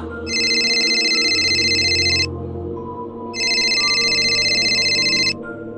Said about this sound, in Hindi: और जैसे ही दोनों कुछ कहने को जा रहे थे कि साहिल का फोन बजा